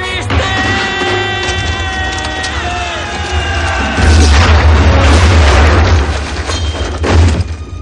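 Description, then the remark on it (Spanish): An enemy cannon shell explodes at a soldier's feet on grass at the battle front: a loud explosive blast bursts in midway, its deep rumbling boom and splintering crackle sustained for a couple of seconds after a steady, tonal whine that runs underneath from the start. “cañonazo enemigo explota a los pies de Raúl”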